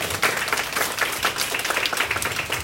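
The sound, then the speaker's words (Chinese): An audience applauds steadily at a company event to thank the speaker's advisors and partners, many hands clapping in a dense, continuous patter that stays at an even, fairly loud level throughout, with no voices heard. “想借有大家的掌声，感谢以上我想感谢的人。”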